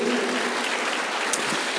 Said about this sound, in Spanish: ¿Cuántos dicen amén a eso? Dar un aplauso al Señor, aunque no te veo muy convencido.